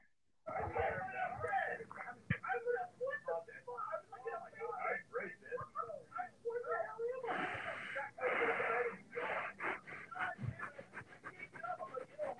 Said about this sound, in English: You could do like breathing like really loudly for a second.